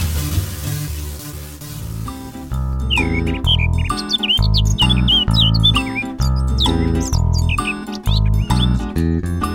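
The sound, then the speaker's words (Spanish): Quick, high bird chirps flit repeatedly over a loud, steady instrumental tune, starting a few seconds in after an opening stretch of music alone and continuing in bright bursts to the end. “Pájaros en el alambre.”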